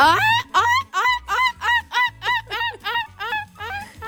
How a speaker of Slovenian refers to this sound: Vse kure so se mi oglasile. One tudi označujejo preplah, ne?